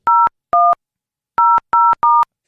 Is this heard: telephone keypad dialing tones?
yes